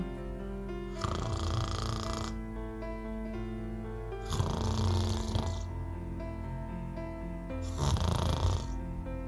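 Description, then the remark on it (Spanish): Three soft, breathy snores from a little sheep arrive at a slow, even pace, each lasting about a second, over a steady, gentle musical drone that continues underneath. “La ovejita roncaba dulcemente bajo su oreja, un ronquido tras otro.”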